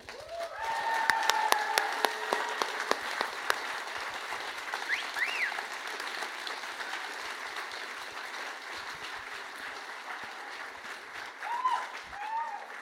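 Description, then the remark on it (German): A large live audience claps steadily throughout, loudest at the start and then holding level, with crowd cheers and a couple of shrill rising whistles breaking through the dense clapping. “Ihr dürft gerne mit applaudieren, ihr dürft euch applaudieren.”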